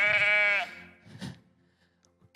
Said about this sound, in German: Ein verlorenes Schaf.